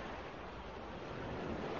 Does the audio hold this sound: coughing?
no